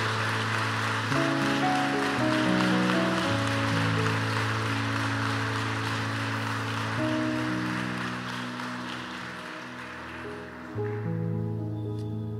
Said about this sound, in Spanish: Démosles un fuerte aplauso a cada uno de ellos.